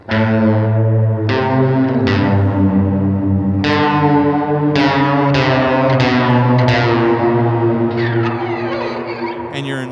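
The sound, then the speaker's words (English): An electric guitar strums sustained chords through a modulated reverb pedal with a lush, spacey sound, each new chord blooming with shimmering wash and long trailing decay, played alone at a steady loud level. “like weird spacey modulated reverb territory, or you could flip it any way you want.”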